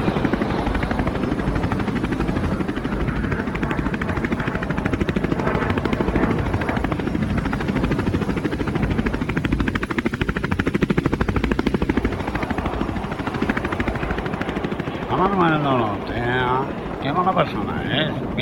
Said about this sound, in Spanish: Encendiendo motores y arrancamos.